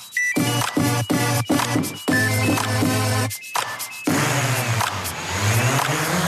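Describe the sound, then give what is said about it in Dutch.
A small flying drone whirs in short, choppy bursts of buzzing tones, then settles into a steady, loud motor whine with shifting pitch. All the sounds come from the one drone. There's no talking. “korte vliegende drone, piepjes daarvan en hier en daar misschien wat getweak met de computer.”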